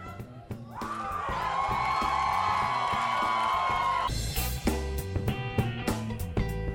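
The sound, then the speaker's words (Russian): A large concert crowd at a radio station's summer studio stage cheers and shouts loudly for several seconds, a sustained roar over steady live band music, which carries on after the cheering dies down. “хочется поблагодарить всех, кто сегодня пришел к этой сцене, кто пришел в летнюю студию радиостанции «Маяк» и еще раз громко крикнуть”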